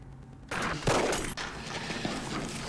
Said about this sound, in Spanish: ¡No! ¿Dónde salieron esos tiros? ¿A quién están disparando? ¿A quién están disparando?